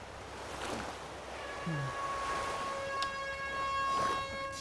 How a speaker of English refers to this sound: And she peels out, instead of going through that tube you were heading to, she crashes through the delivery doors you hear an emergency siren go off, and then the tunnel starts filling with water.